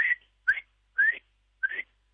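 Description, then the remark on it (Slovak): Four short, shrill alarm whistles from a marmot standing guard on a raised spot, repeating at a steady pace, each a sharp rising chirp with brief silence between, clear with no talking. “je tam taká kooperácia medzi nimi, že sú jedince, ktoré sú na stráži, na takých vyvýšených miestach a pekne pískajú”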